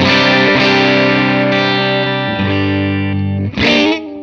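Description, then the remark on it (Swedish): Loud, fuzzy distorted electric guitar through a 6V6 tube amplifier, playing sustained ringing chords that shift a few times, with a bright, buzzy top end and no talking. “Men jag tycker nästan att det här röret eh, tillsammans med det första röret har varit de två fräsigaste.”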